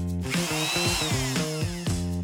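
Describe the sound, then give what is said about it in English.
A power drill whirs, its motor whine rising and dropping in pitch over a few quick bursts, loud and continuous with no voices. “Wrench. Wrench. Drill. Drill.”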